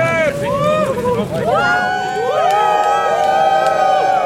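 A crowd of about a hundred people cheers loudly on the Domplatz for a celebratory photo taken before election results are known, a dense wash of overlapping shouts and rising whoops that swells and holds for several seconds.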